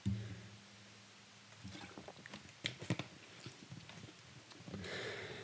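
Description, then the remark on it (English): Someone takes a quiet sip of a drink, with small wet slurps, clicks and a swallow scattered over a few seconds, and no talking. “Excuse me, I'm having a sip of liquid.”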